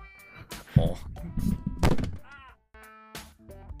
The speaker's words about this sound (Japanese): ごめんごめん。マイク落ちた今。